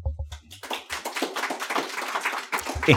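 An audience votes by a round of applause: dense, crackling clapping from many hands that holds steady for a couple of seconds, preceded by a few scattered claps and followed by a brief voice.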